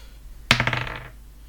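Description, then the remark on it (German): A die clatters onto a table with a sharp initial knock, followed by a quick series of rattling bounces that fade out within half a second, clear, with no talking. “Auf einmal kann ich nicht mehr würfeln.”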